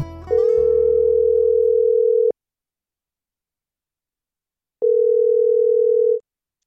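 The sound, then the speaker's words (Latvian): A telephone ringback tone of an outgoing call to a weaver in Cēsis: two steady electronic tones, each about two seconds long with a silent gap between them. A brief burst of other sound precedes the first ring. “viņa manu telefona zvanu jau ir gaidījusi”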